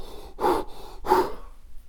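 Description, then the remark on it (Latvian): Two heavy, breathy gasps from a person after a set of squats with a dumbbell follow each other about half a second apart, fairly loud, with quieter breathing trailing off afterward. No one speaks. “Un tas skatās, kā viņš elpo.”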